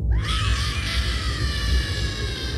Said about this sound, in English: Then, somewhere in the depths of the levels, an inhuman voice wailed.